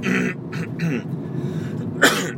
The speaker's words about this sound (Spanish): Vaya, hoy os voy a dar la lata con esto de la tos.